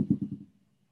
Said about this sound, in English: Did you hear that ball bounce upstairs? That's my dog Lambo dropping his ball. He said, "Play with me." It's right above my head.